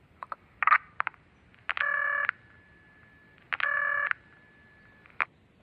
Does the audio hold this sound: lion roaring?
no